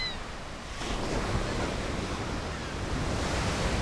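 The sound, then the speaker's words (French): Powerful ocean surf roars steadily onto a beach at Mimizan, high, strong waves breaking in a dense wash that swells a little louder after the first second, with some wind noise and no voices. “À Mimizan, les vagues sont hautes et fortes.”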